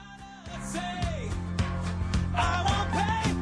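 A punk rock song plays at steady volume, with a full band of driving bass, bright guitars and crashing cymbals under a sung vocal melody, growing denser after the first half second.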